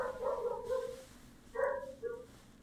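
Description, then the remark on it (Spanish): A dog left outside barks and whines in three drawn-out, yelping bursts: one long cry, then two shorter ones after a pause, with no one talking. “No me acordé que lo dejé afuera. Por eso hablé mucho, ¿eh? Porque, porque no quería que se escuchara me, el perro.”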